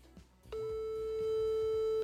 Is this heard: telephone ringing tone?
yes